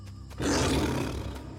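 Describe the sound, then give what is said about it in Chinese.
A single terrifying animal roar, from an animal hiding behind leaves in a jungle, erupts after a moment of quiet, deep and rough with a growling rasp, holding loud and steady before easing slightly at the end. “正当兔子想跑得更快的时候，他听到背后传来一个恐怖的吼叫声。”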